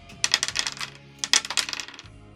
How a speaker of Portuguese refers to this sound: Joga dois dados.